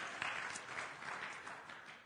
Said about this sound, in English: I'm happy. I'll applaud for that myself.